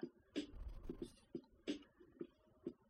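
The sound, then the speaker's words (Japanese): Quiet, irregular keystrokes clatter on a computer keyboard as someone types a search, about eight clicks with uneven pauses between them, with no one talking. “ちょっと、キーボードの位置がおかしくて、”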